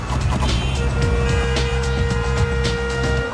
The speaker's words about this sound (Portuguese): Trânsito. Trânsito.